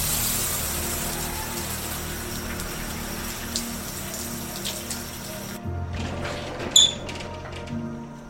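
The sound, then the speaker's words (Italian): Steady hiss of splashing swimming pool water in the tropics, then a sudden shift to a dull, muffled underwater sound as a person jumps into the pool, with a faint high chirp near the end. No talking. “Qui ai tropici, non essendoci acqua gelida, come prima cosa mi butto in piscina.”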